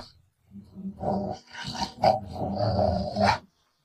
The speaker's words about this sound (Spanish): Su perra Chloe dormía en su cuarto. A las 2 de la mañana, el perro empezó a gruñir.